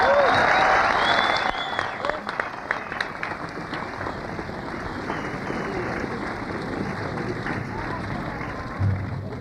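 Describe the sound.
An audience applauds with dense, steady clapping that is loudest at the start, then settles into a sustained even patter. Scattered voices and murmurs mix in beneath the clapping.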